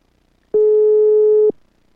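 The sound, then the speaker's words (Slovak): A single steady electronic telephone ringback tone sounds for about a second while a phone call is being placed, a clean, loud, unwavering beep, with silence before and after. “Renáta je výherkyňou, tak jej ideme zatelefonovať. Uvidíme, či sa dovoláme.”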